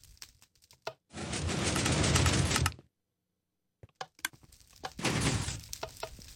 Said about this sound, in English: It just shut the doors behind us. That's all. It did.